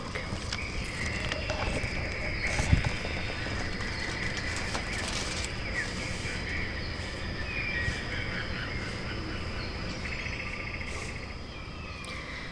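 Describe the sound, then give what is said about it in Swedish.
A dense rainforest ambience in an experience room currently set up as a rainforest: steady insect buzzing and chirping blends with scattered bird calls in a continuous, moderately loud wash of sound, with no one speaking. “Och här är upplevelserummet som just nu då är en regnskog.”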